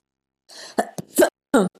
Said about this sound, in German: Jetzt fängt wieder Husten an. Husten ist auch immer so ein Zeichen, dass da noch was losgelassen wird.